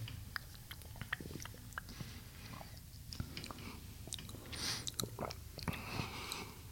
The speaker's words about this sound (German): und zwar Nase zuhalten, Schluck mhm. im Mund. Runterschlucken und dann die Nase wieder aufmachen.